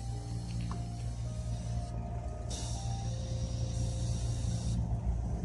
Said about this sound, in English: putting some air in the car. It looks like my tire is fucking low and shit.